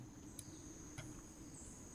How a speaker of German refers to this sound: Gucken, ob ihr das alle noch kennt. Draußen, so Vögel und Bäume und Wind. Und so. Ach, immer ein bisschen laut noch.